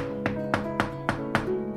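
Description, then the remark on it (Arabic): Five evenly spaced knocks as an old woman raps on the door of Rashid al-Din's palace, sharp, at a steady quick pace over a faint sustained tonal background with no talking. “إلى أن دلها الله تعالى على قصر الملعون رشيد الدين فسمعت من داخله أنين فطرقت الباب”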